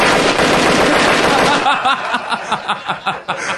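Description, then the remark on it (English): A sound effect of AK-47 automatic rifle fire: a loud, sustained burst, dense and continuous for over a second, then breaking into a rapid string of distinct shots trailing off. “I think it's going to sound like an AK-47”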